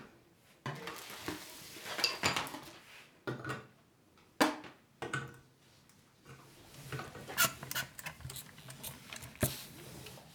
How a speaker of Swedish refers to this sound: Det där lät ju jättekonstigt. Du måste säga vad det är du gör. Jag stryker din bordsduk på bordet. Direkt på bordet stryker jag.